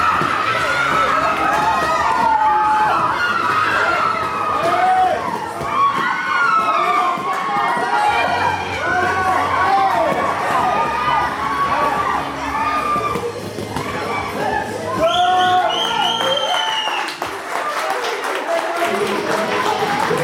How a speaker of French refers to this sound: nous demande de frapper et crier simultanément, ce qui est de la part d'une trentaine de femmes en même temps assez impressionnant.